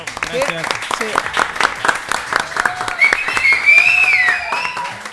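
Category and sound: crowd, audience applause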